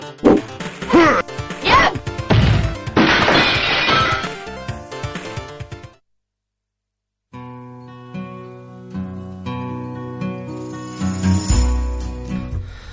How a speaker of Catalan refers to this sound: Ara ja vidres trencats, últim round, a veure qui guanya.